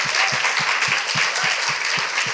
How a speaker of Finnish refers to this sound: Otetaan ne isot aplodit